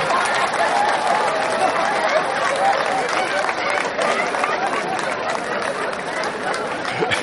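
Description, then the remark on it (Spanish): An audience at a comedy show erupts in applause after a joke, on the second-to-last night, a dense, loud wash of clapping and cheering voices that holds steady for the whole stretch without a break. “El público estalla.”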